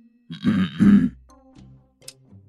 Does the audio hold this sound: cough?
yes